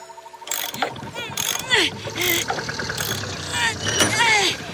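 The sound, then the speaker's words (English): A wrench ratchets on a bolt in quick bursts of rapid clicking, mixed with metallic clanks and voices or vocal sounds sweeping over the mechanical noise. “…, wrench! Oh, wrench. Here you go.”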